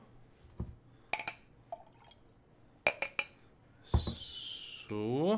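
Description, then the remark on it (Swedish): Several sharp glassy clinks and taps, then rum and cola poured into a glass to mix a late-night grog: a hissing fizzy pour followed by a steady stream whose pitch rises as the glass fills. A voice briefly speaks. “Um, så här, jag ska ta lite, här var lite, uh, lite rom. Så ska man ju ta lite kola på det då.”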